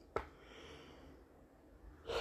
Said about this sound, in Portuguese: Desculpa, gente, a, a, o bocejo aqui.